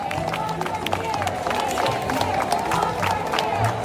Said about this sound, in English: And when they get to the federal courthouse, I mean, the crowd loves them. They they start cheering. Anyone with a microphone or a megaphone starts, you know, announcing, "Here come the moms! Everybody make room!"